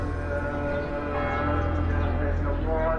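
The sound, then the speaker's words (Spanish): Church bells in Jerusalem ring loudly and continuously, their overlapping tones blending into a dense, sustained peal with a steady, resonant hum underneath and no pause throughout. “La cúpula dorada que protege la roca de Abraham es lo primero que llama la atención y solo el sonido de las campanas y de los almohacines revelan al viajero las numerosas iglesias y mezquitas.”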